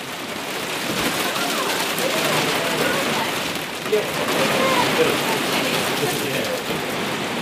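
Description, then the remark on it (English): Heavy hail pelts down on Anchor Island in Fiordland in a dense, continuous roar of rapid impacts, loud, holding steady for the whole stretch with no pauses. “So I'm on Anchor Island in Fiordland and it is hailing like nothing else, but luckily we hadn't left the hut yet.”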